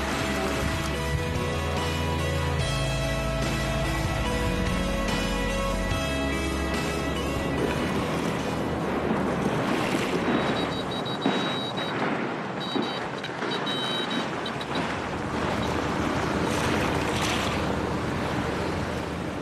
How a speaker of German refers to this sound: Es ist jedes Mal ein Spektakel, wenn die Wasserflugzeuge vor dem Hotel San Giorgio direkt am Steinstrand landen.